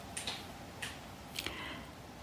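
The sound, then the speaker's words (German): A glowing wood fire in a fireplace crackles softly, a few sharp, irregular pops standing out over a low, steady background hiss, with no one talking. “Ja, ihr hört richtig, im Hintergrund knistert das Holz.”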